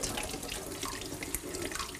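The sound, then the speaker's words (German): Tap water runs in a steady, even rush for about two seconds, with faint splashing and spattering as a carrot is quickly washed under the stream while cooking. No one speaks. “Gut, dann nehmen wir die Karotte, die waschen wir mal geschwind.”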